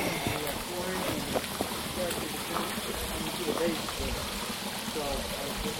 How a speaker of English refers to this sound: This is really pretty here. The water is trickling down the hill. Uh, it's just like a little scene from The Lord of the Rings. Really pretty.